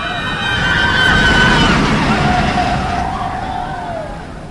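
A car drives along a highway past the Florida State Fairground with steady road noise while high, wavering screams of children and adults from the fairground rise and fade in the background, loudest at first and then tapering off.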